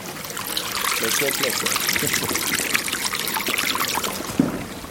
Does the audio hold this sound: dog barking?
no